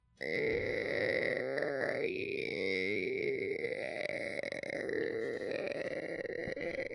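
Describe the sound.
A person vocally imitates a long, squeaky door-like fart, like a door shutting slowly: a sustained, strained creaking tone that wavers and stutters for several seconds, loud, with no talking.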